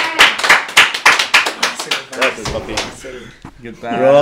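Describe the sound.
A quick burst of hand clapping, sharp claps in a steady rapid rhythm for about two seconds, fading as a voice starts talking over the end.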